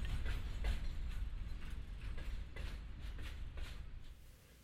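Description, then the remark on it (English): A train picks up speed along the rails with a steady low rumble and a rhythmic clacking over the track joints, fairly loud, the noise easing off slightly at the end. “He began to breathe more easily as the train picked up speed.”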